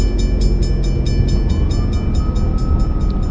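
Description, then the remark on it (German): A landed airplane brakes hard, with the brakes fully applied, in flight game audio: a loud, continuous roar with rapid, evenly spaced thumps, and a thin whine that rises partway through. No one speaks. “Ich habe jetzt gebremst, wie man hört. Und zwar voll, also mit Altposition Ende.”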